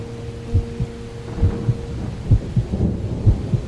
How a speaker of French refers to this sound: qui semble être à l'origine de la catastrophe du 6 juin 1884, journée marquée par une intense chaleur orageuse accompagnée de fortes pluies.